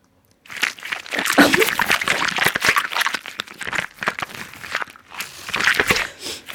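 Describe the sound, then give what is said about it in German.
Homemade foley for a man turning into a fly, made with a rubber glove with water, a plastic bottle and a sheet of paper: continuous wet squelching mixed with crinkling plastic and crackling paper, busy and irregular for about six seconds, with no voices. “Beteiligt war, glaube ich, ein Gummihandschuh äh, mit Wasser, eine Plastikflasche und ein Blatt Papier. Daraus habe ich dieses Geräusch gemacht.”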